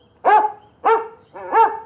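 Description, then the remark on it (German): A dog named Nelson, eager to be taken outside, gives three excited, high-pitched yelping whines in quick succession, each rising and wavering, fairly loud with no talking. “Nelson jault begeistert.”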